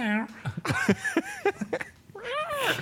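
A cat meows, starting and ending with long, drawn-out wavering meows, with a quick run of shorter chirping mews in between.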